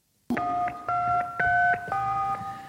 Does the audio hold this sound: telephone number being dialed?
yes